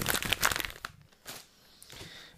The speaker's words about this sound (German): Warte, ich raschel kurz.